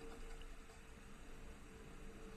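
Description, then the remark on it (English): Heavy storm rain pouring down in Ponce, Puerto Rico, after eight hours of nonstop rain, in a dense, unbroken hiss that holds steady for a couple of seconds, with a low rumble beneath and no voices. “it is pouring like the sky has fallen here in Ponce, and it has been raining nonstop for the past eight hours.”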